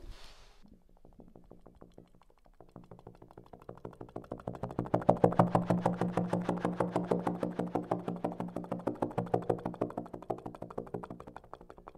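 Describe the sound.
A viola imitates a helicopter with fast, chopping repeated strokes that swell from faint to loud, as if approaching overhead, then slowly fade as though it flies away.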